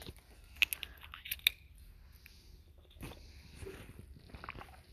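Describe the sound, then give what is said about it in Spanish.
A few sharp clicks and taps, then soft wet mouth and swallowing sounds as someone takes a sip of water, quiet and with no talking. “Aleluya, gloria a Dios tomar un poco de agua.”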